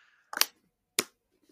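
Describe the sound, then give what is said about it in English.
Two sharp plastic crackles as a bottle of water is opened, a quick crunchy burst followed by a second crisp click about half a second later, like a water bottle cap being twisted open. “No, it was me opening a bottle of water.”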